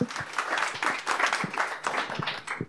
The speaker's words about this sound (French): Et on peut applaudir l'olifant pour sa présentation quand même, qui était magistrale.